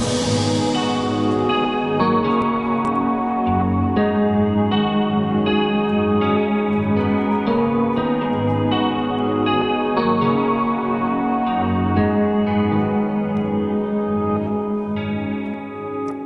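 A rap song's closing section plays steadily at full volume on Radio Alba's Friday evening rap show, thick with layered, effect-drenched tones, chorus and distortion shimmering over a repeating bass pattern until it fades slightly at the end.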